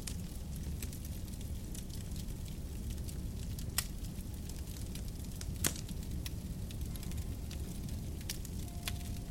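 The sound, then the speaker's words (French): A fireplace fire crackles steadily, with a constant low roar beneath scattered sharp pops and snaps, a few louder than the rest, continuous with no voices. “vous êtes enveloppé et protégé par la lourde couverture et l'atmosphère réconfortante du feu de cheminée.”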